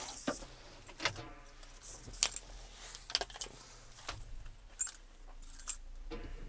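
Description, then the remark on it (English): Keys jangle and clink in a series of bright, metallic bursts over several seconds, with small rattles between the louder shakes and no talking. “I got keys.”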